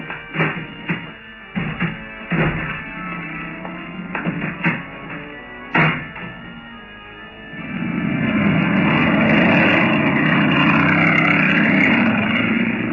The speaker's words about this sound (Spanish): El veloz auto partió, cruzando a un lado de aquel letrero amenazante. Pronto se perdió en la niebla.